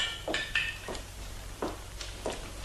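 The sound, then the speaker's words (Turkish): A glass of beer being poured and set down, with five or six light glassy clinks and clatters spread unevenly over a few seconds, with no talking. “gene susadım. Ne oldu bana böyle? Bir bardak bira daha iç.”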